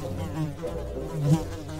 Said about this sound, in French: Il était avachi sur son trône, comme un gros crapaud visqueux, et de grosses mouches bourdonnaient autour de lui.